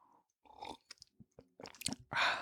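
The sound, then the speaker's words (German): Someone drinking water: a few wet sips and swallows with small clicks and handling noises, ending in a louder breathy burst, with no talking. “Genau, ich trinke jetzt erstmal Wasser nach.”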